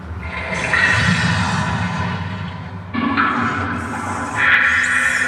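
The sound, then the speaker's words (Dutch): A loud, continuous watery rush and gurgle, like a flushing surge, plays for several seconds, briefly dipping and then swelling again: a sound effect for a projected moray eel in an exhibit where visitors put their hand in. No voices over it. “Zo, komt eventjes een murene. Zou die ook echt zo'n geluid maken, denk je?”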